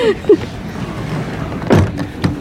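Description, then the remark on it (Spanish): Electric car windows whir down inside a TikToker's car during a live show, a steady motor hum with a couple of brief mechanical clunks near the end, moderately loud. “Abrimos las ventanas”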